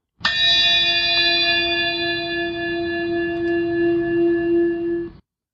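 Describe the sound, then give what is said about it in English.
A single bell is struck once and rings out with a bright, shimmering tone that lingers for several seconds before cutting off. It is loud, with no voices. “Ah, I hear a bell. That means this is the ingredient of the day.”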